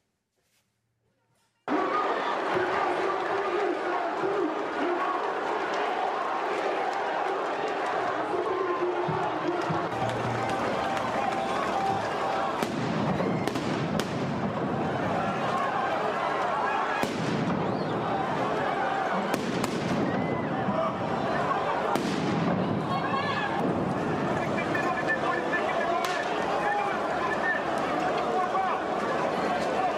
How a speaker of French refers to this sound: avait organisé une manifestation place de la République, je cite, contre le racisme et les violences policières